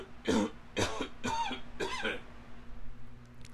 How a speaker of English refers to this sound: Allergy cough. Sorry, everyone. Thank you for sticking around. Thank you for hanging in there while I did that.